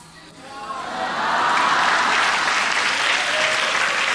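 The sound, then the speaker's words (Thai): Audience applause at a show swells in over the first second, then holds as a dense, steady wash of clapping until the end, with a few faint tonal traces early on. “ขอบคุณทุกท่านครับ เสียงปรบมือและเสียงกำลังใจจากท่าน เป็นสิ่งที่ผมต้องการที่สุดครับ”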